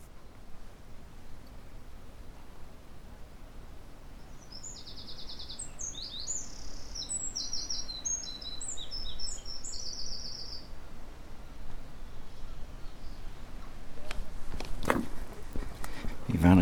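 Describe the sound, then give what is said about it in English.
Wrens sing rapid runs of high, bright trills and chirps for several seconds over a steady outdoor background rumble, overlooking the breakwater at Portland, followed by a few clicks and bumps near the end. “peaceful here if it wasn't for those noisy wrens.”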